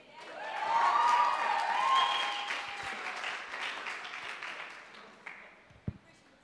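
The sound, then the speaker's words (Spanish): Audience applause welcoming two actors rises quickly into a steady, dense wash of clapping, then gradually thins and fades toward the end, with a couple of isolated sharp claps near the finish. “Recibamos con un fuerte aplauso a los actores.”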